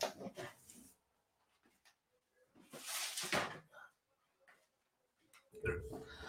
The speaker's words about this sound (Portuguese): só fechar a porta aqui por causa do barulho. Aguenta aí, rapaziada. Pera aí.